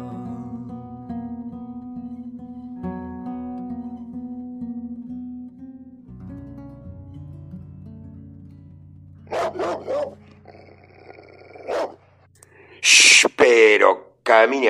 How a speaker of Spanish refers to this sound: escucha, salga de ahí, no le ladre a don Ofidio, que es amigo de la casa.